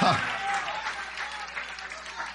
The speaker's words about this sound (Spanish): Den un aplauso fuerte, fuerte. Den un aplauso, den un aplauso, den un aplauso. Fuerte, fuerte, fuerte, fuerte.